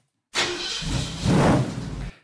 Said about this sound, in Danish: Det her det er altså lyden af en amerikanerbil, der starter, og øh, den siger, øh, den ny, kommer frem fra fremtiden ikke til at sige en lyd, fordi det her det er lyden af den ikonisk brølende Mustang.